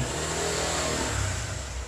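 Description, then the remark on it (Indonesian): A vehicle engine revs and accelerates, a steady low rumbling drone with rising intensity that fills the whole moment, with no voices over it. “ngegas tuh ngegas tuh”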